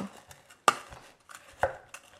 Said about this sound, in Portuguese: Depois de cortar o limão, a gente vai adicionar o açúcar. As três ou quatro colheres, vai depender de você. A gente dá uma maceradinha aqui, uma amassadinha nesse esse limão. Se você tiver um socador aí